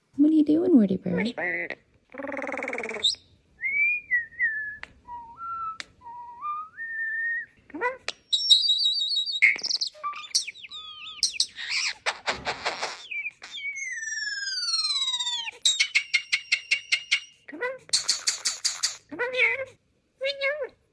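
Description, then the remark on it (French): A starling runs through a medley of mimicked sounds, chained together by the bird itself without editing: clear whistles, sliding tones, rapid clicking rattles and chattering bursts, fairly loud, with brief pauses between phrases. “c'est les tourneaux qui imitent les sons humains”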